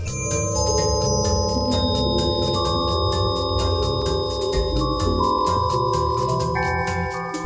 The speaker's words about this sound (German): Ein Forschungsteam aus den USA hat mit einem Spinnennetz Musik gemacht.